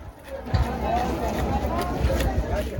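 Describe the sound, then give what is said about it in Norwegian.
A busy outdoor market in Somalia hums with overlapping voices and crowd chatter, a steady dense babble with occasional thumps and clatters; vegetables, rice and grain are laid out on blankets on the ground, and animals are bought and sold. “Dette er lyden av yrende liv på en marked i Somalia.”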